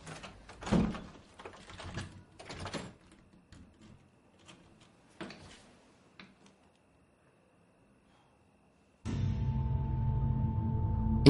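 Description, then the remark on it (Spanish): A bedroom door swings shut with a few rattling thumps as someone leaves, then brief sharp clicks as a key is turned in the lock from inside. A short silence follows before a steady, loud humming drone starts. “Julia sale de la habitación cerrando la puerta tras de sí. Daniel se levanta y echa la llave por dentro.”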